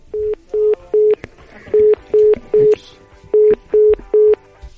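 Telephone keypad tones beep loudly, nine short electronic tones in three quick groups of three, dialing a call again after a problem with the phone, with faint background noise between them.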